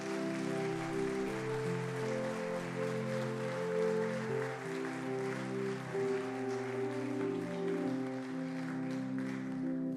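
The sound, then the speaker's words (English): An audience claps steadily for several seconds, the dense applause blending with sustained organ-like chords that hold underneath throughout. No one speaks. It is a hand clap of praise to Jesus after a prayer at a child's dedication in church. “Come on, can you give Jesus a hand clap of praise?”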